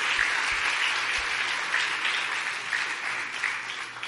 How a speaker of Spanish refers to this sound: Dale un aplauso entonces al Espíritu Santo por ello.